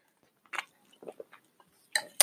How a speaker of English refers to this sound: Sorry, I'm um I took a sip of my tea. I have some London fog. Uh, I made a London fog latte with almond milk and I put a little bit of agave in there.